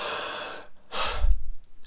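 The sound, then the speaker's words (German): A loud, deliberate breath drawn in and then pushed out, with a long breathy inhale followed by a rougher exhale; no one speaks. “Ich mache es noch einmal mit, ähm, man muss nicht laut atmen, aber Soundeffekte helfen beim Podcast.”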